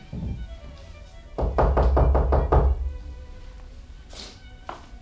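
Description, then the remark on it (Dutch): A quick series of about six firm knocks on the door of flat number 3, loud and evenly spaced, with quieter background sound before and after. “zei de reiziger toen hij op de maan verlichte deur klopte.”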